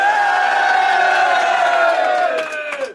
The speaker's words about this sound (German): Wir sind hier bei, wir sind hier bei Future of Battle Rap. Ja, Mach mal Lärm für die Liga, für das Event, für jeden, der hier heute mitorganisiert hat. Mach mal Lärm! Yeah!